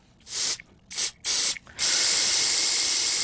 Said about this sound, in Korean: 예, 이게 저, 어, 모기 잡는 스프레이 소리입니다. 치트 하는 거. 예, 여러분들 그 예전에 이거 참 많이 했죠. 그죠?